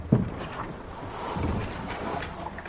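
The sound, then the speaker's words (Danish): A sailboat going out under sail, without its engine, pushing off and gliding out of harbor at good speed, with steady wind rush and water noise throughout and a single soft knock near the start; no voices. “Og øh, som rigtig sejler, så er vi selvfølgelig ikke motor med. Så vi går selvfølgelig ud for sejl.”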